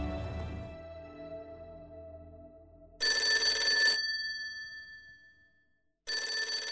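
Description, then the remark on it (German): A landline telephone on a dresser in a doctor's living room rings with a call from a medical practice, in two bright, buzzing bursts about a second long, separated by a pause, after a fading tone. It's fairly loud, with no one speaking. “Vor dem sitzen die beiden den ganzen Tag und warten auf den Anruf aus der Praxis.”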